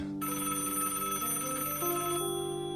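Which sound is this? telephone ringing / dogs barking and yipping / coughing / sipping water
telephone ringing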